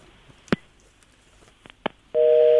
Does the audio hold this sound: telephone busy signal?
yes